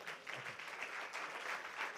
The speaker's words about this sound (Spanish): Dale un aplauso bien fuerte a Dios.